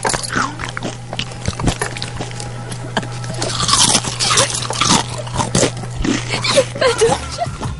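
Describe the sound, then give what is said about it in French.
Loud crunching as someone eats, with irregular crisp bites and chewing bursts over several seconds and a faint steady hum beneath. “D'ailleurs, si tu manges des chips, mets-le dans un bol puis croque doucement.”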